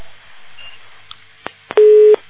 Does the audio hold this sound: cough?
no